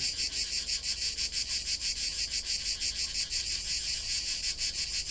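cicadas singing

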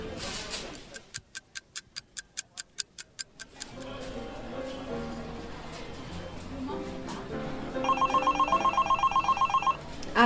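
telephone ringing

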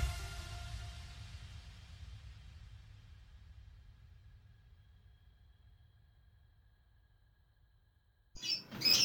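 birds chirping loudly

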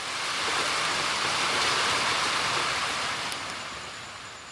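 heavy rain

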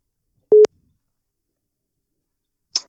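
telephone ringing tone

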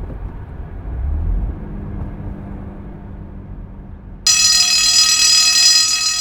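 doorbell ringing

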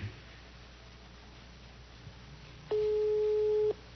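telephone call tone

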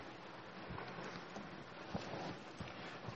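heavy rain falling

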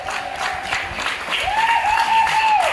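applause

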